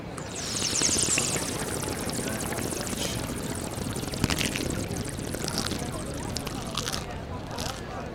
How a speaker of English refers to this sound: All right then. I am inclined to drink this water.